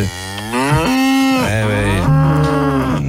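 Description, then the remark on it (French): Loud cows moo in a quick series of long, low, drawn-out calls that overlap and shift in pitch, with no talking underneath. “Et encore même là, les vaches vont le huer.”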